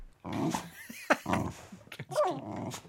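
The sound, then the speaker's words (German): A person imitates a dog, counting down from 10 to 0 in barks like a New Year's Eve countdown, producing a quick series of gruff, growling barks with one sharp yap in the middle, fairly loud, with no other sounds behind. “können Sie eigentlich bellend von 10 runterzählen? Also wie so ein klassischer Silvester-Countdown.”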